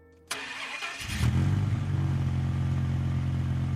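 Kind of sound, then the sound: vehicle, car engine revving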